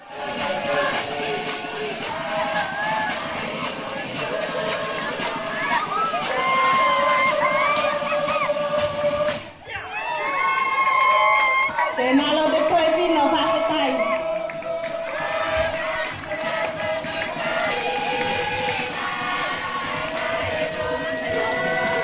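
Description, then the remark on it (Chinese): Lively Tuvaluan traditional dance music, used to welcome guests, sung by many voices at once, loud and continuous, with a crowd cheering and shouting throughout; a brief drop near the middle before the singing surges back. “这段是我们吐瓦鲁传统的舞蹈音乐，哦，是拿来迎宾用的。”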